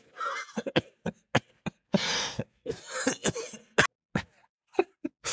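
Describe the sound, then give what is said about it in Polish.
A run of harsh coughs in uneven bursts, some short and sharp, one longer raspy fit in the middle, with brief silent gaps between them and no talking, from a person with ordinary pneumonia, not COVID. “Jak zdrowiem? No właśnie słyszałeś.”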